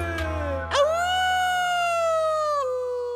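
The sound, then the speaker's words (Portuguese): A single long wolf howl that swoops sharply upward, holds a steady, high, wavering pitch for about two seconds, then dips lower at the end. No voices are heard. “Era um lobo. E ao vê-lo ali, de olhos muito abertos a uivar”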